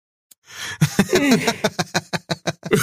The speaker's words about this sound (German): Also, Einer der wenigen Podcasts, in denen gegähnt wird.